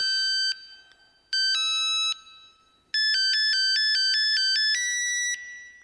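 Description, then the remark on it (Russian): A 64-voice polyphonic mobile phone ringtone plays a bright, beeping synth melody in short repeated phrases with brief pauses, loud, with no voices. “Просто слушала 64-голосовую полифонию и мечтала писать жесткие тексты.”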